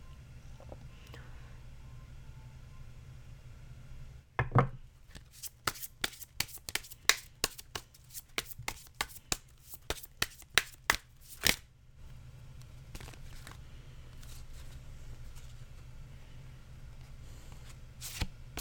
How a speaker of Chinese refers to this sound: 但是我先说，就是因为会洗牌嘛，所以我中间可能会有停顿的时间，就等，就请大家等我一下。